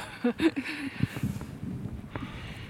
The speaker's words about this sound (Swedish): Vinden ja, det är vinden. Kyl, köldfaktorn i vinden är ju elak va?